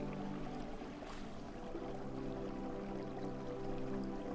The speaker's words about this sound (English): The sound of the waves is ever so relaxing.